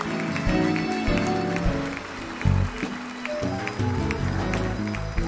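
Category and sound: crowd, audience applauding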